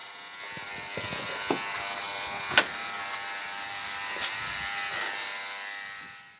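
An apartment building's doorbell or intercom buzzer sounds as a steady, close electric buzz for about six seconds, with a few faint clicks along the way. No one speaks.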